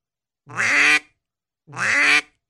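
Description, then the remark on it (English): Two drawn-out, nasal quacks spaced about a second apart, loud, imitating a hen mallard duck with long, stretched-out calls and silence between them, showing the common mistake of making the quack too long. “It it's to imitate a a uh, hen mallard, mm-hmm.”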